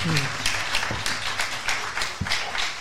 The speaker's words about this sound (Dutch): Maak een applausje voor